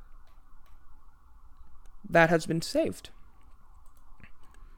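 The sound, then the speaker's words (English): A fire engine siren from a fire department across the street holds a faint, steady wail in the background for the whole stretch, while a person briefly speaks over it in the middle. “If you can hear a siren in the background, that's because I live like right across the street from a frickin' fire department.”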